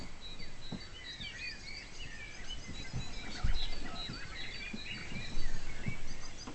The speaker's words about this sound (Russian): А еще слышите, как наш соловушка щебечет.